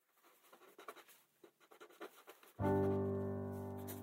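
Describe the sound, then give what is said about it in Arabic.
A pen scratches across paper in short, quick strokes for a couple of seconds as someone writes down their impressions and feelings in a letter after midnight, then a loud, sustained musical tone abruptly cuts in and holds to the end. “ها انا اعود في اليوم التالي امسك القلم واكتب انطباعاتي ومشاعري”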